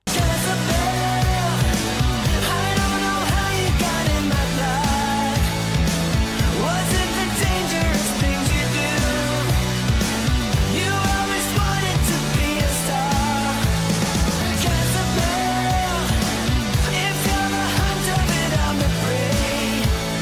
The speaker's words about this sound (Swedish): Ja, men det är klart du ska ha lite finsk rock.